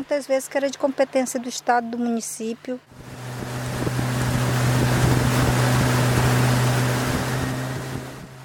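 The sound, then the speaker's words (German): A motorboat of an indigenous organization cruises along the Rio Negro in Brazil with a steady engine drone and constant rushing water and wind noise, loud, after a few seconds of someone talking at the start. “Mit dem Boot der indigenen Organisation Copimi geht es weiter auf dem Rio Negro.”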